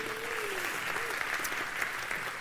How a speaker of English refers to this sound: Hey, I want to welcome both of our campuses, Newnan and LaGrange. Can you guys give each other a big round of applause this morning?